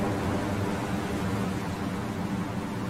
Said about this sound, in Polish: Słyszysz ten silny wiatr? Oprócz tego padający deszcz.